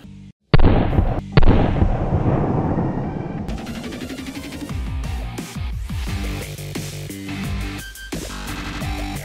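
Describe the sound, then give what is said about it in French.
Two loud gunshots from a double-barrel 1911 pistol ring out near the start, followed by a long rolling echo that fades into a dense, crackling background with no talking. “Un 1911 avec deux canons, un double barrel.”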